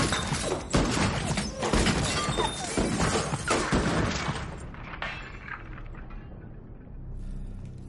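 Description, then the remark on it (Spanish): Loud bursts of gunfire tear through a house as window glass shatters and objects in the house crash and break, a dense chaotic barrage that gradually thins into scattered debris and rumble. “Los cristales de las ventanas se rompen. Los disparos rompen varios objetos de la casa.”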